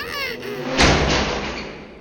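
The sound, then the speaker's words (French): A door is shut with a single solid thud that rings out briefly in the room, just after a short, faint high-pitched vocal sound. “ferme la porte.”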